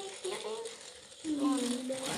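A Beyblade launcher ratchets during a game of Beyblade in a steady, buzzing whir of rapid clicks, stopping briefly and then winding again more strongly, with a tonal hum running underneath.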